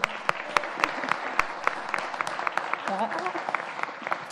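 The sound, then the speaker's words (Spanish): Steady applause for musicians from a small audience, sharp individual claps over a dense patter of hands, lasting several seconds, with a brief voice rising faintly through it near the end. “Y un fuerte aplauso para estos músicos.”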